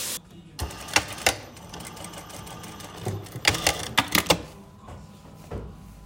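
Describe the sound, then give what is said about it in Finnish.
A sewing machine whirs in short mechanical bursts, with clicks and brief clattering stops between runs, with no talking. It is in the sewing room of a theatre's costume department, where new costumes for new plays are being made. “Silitysrauda höyryt puhisee ja ompelukone surisee ja uusia asuja uusiin näytelmiin valmistuu kovaa kyytiä.”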